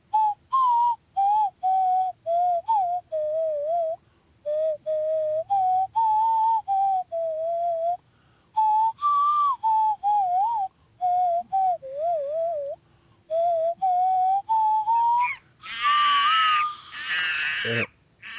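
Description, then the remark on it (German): A person gives a whistled call to chase away a dog that is running up: a long series of short, warbling phrases around one pitch, pausing briefly between each, ending in a harsher, noisier burst; no talking is heard. “Also, ja, da, dann den, den Hundevertreibungsruf.”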